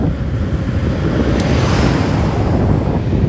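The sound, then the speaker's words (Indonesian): Steady, loud wind buffeting a microphone outdoors at a night market area with food stalls, a constant low rumbling roar with gusty fluctuations and no voices for the whole few seconds. “Ini suaranya berangin kayak berangin banget”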